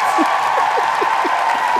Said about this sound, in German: Oh, was für ein Applaus.